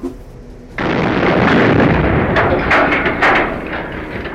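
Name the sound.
dynamite explosion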